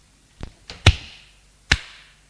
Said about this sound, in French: Il la gifle.